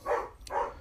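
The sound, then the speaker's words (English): Two barks from dogs acting up in the background, each about a third of a second long with a brief pause between them. No one speaks. “And sorry, you can probably hear the dogs in the background, they're acting up.”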